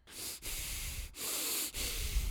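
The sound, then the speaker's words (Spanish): Heavy, forceful breathing, a person huffing loud rasping breaths in and out, about four in a row with brief pauses between them, with no talking, imitating angry breathing. “O sea, inmediatamente entra la respiración de la ira.”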